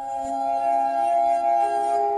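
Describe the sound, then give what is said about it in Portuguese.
Several sustained, pure ringing tones hum together at steady volume, like a glass harmonica played with wet fingers on glass rims, with one pitch shifting partway through. No voices. “Até inventou uma harmónica de vidro, um instrumento musical que reproduziu o som que um dedo molhado fazia quando era esfregado ao longo do rebordo de um copo ou de esferas de vidro de diferentes tamanhos.”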